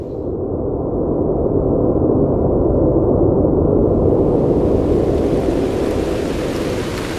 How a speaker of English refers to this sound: Okay, so this was my go-to it's not white noise, right? So f- it's called Tropical Rain Sound, Black Screen, Sleep Study, Meditate, Relax. Uploaded in 2018, got about 3 million views.